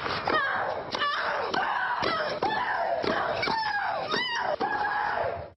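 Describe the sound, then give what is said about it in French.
A female professional tennis player's loud, high-pitched shrieks repeat in quick succession, roughly one every half second, each starting with a sharp hit and trailing into a wailing tone, compiled from 2007 French television news. No talking. “On compilait ses cris et je vous laisse apprécier à quel objet on osait encore la comparer.”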